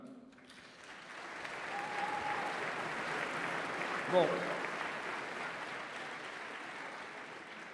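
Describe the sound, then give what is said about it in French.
An audience claps steadily for several seconds to thank the people who worked behind the scenes to organize the gathering, a dense, even wash of applause that swells early and holds, with a brief voice at the start and a short sharper burst midway. “qui ont fait circuler le truc sur les réseaux sociaux et tout ça, donc vous pouvez aussi applaudir et remercier tout ce travail des, des petites mains invisibles.”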